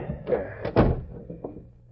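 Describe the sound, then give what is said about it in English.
A door swings shut with a solid thud, preceded by a short rattle as it moves, followed by a few faint knocks and low rumbling as things settle. “Now, shut the door.”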